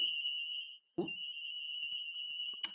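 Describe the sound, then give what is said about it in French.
A building alarm, left on because someone forgot to switch it off, blares with a steady, piercing high-pitched tone that holds almost unbroken, pausing only briefly before a dull thump, then droning on loudly with a few faint clicks. “Il y a une alarme.”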